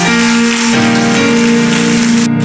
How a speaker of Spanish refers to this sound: Alguien dio un aplauso a la gloria de Dios.